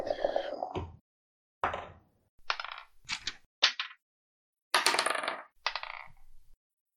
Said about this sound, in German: wir würfeln alle eine Initiative